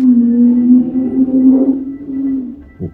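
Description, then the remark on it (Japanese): A loud car goes by with a low, droning engine hum that holds steady for a couple of seconds, wavers slightly in pitch, then fades, followed by a brief soft thump. “なんかすごい車が通っていきましたね。”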